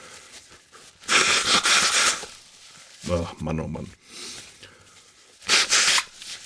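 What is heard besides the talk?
nose blowing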